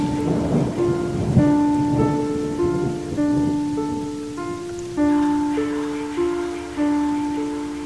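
Heavy rain hisses steadily with a low rumble of thunder in the background, with lightning and strong wind, seen from a fifth-floor office window, while soft sustained musical tones play over the storm.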